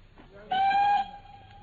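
A train gives a single short, steady whistle blast lasting about half a second, at a suburban halt about halfway to London. It rises over a faint low background rumble, and no one is talking.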